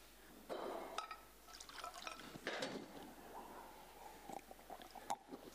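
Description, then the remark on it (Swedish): Water splashes into a glass, its pitch rising as it fills, followed by a few soft gulps and clinks. Quiet, with no talking. “Och jag ska berätta alldeles strax, jag ska bara ta lite vatten för jag är så törstig.”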